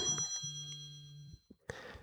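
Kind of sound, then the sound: household object, telephone ringing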